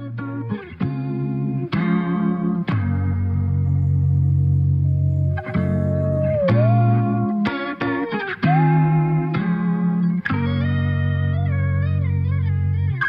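A song plays continuously and loud, with heavily processed, chorus-and-distortion-laden vocals gliding over sustained chords and bass, punctuated by sharp rhythmic hits every second or two.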